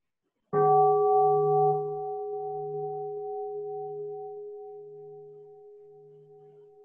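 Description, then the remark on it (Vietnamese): A single deep bell is struck once during a Buddhist dharma talk, its rich tone ringing out and slowly fading with a gentle pulsing shimmer over several seconds, heard alone without any voices. “xin một tiếng chuông xin con.”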